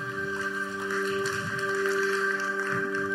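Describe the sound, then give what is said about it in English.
A small, subdued round of audience clapping for the team that led them that morning: scattered, soft hand claps blending into a steady wash, with a constant tonal hum running underneath throughout. “I gave you two instructions there, so I understand why that clap was so quiet.”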